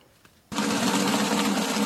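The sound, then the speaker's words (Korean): After a brief quiet moment, a dough mixer in an independent bakery abruptly starts up, its motor churning bread dough in the bowl as it thickens, with a loud, steady whirring drone and a low hum underneath, continuing without pause. “어, 이거 반죽 돌아가는 어, 소리. 통 안에서.”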